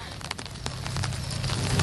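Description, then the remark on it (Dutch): Steady rain patters down, a dense hiss of drops with scattered sharper taps, continuing evenly and slightly swelling toward the end, with a low rumble underneath. “Dus de algehele sfeer is nog niet neergeslagen van oh, oh, oh, het regent?”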